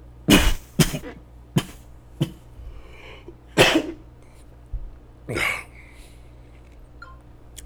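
A bout of harsh, explosive coughs from a speaker live on air, about six bursts coming in irregular clusters over several seconds, loud, with short quiet gaps between them and no talking.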